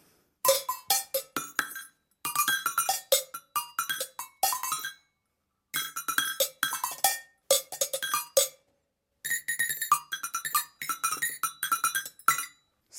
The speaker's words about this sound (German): Das sind jede Menge Kuhglocken in allen Größen. Ja, ja. aber ich spiele ja mit Sticks. Das klingt dann so.